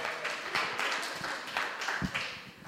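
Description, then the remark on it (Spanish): A crowd applauds steadily, a dense patter of many hands clapping at once that holds fairly even for a few seconds, with no clear voices. “Tú vas a Heterolandia y aplausos a ella, vamos.”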